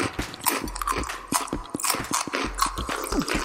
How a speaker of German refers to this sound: Boah, das war aber ein großer Bissen.